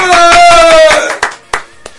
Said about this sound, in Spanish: Un fuerte aplauso